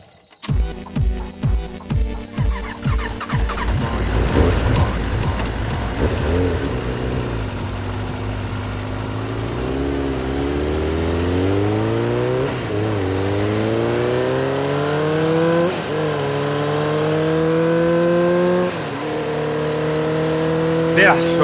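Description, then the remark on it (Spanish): A motorcycle without working lights: its engine sputters to life with a few rough pulses, then revs and accelerates steadily, its pitch climbing through several gear shifts as it rides off, loud throughout. “Encima ni luz no tiene tu moto.”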